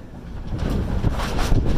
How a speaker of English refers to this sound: there's a storm blowing in. That's what you hear in the background